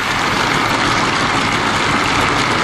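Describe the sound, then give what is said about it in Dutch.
Sustained one-minute applause from a large assembly in the European Parliament: a dense, steady wash of many hands clapping at an even loudness throughout, with no voices heard over it. “Ja, dit was het applaus eh, van een minuut.”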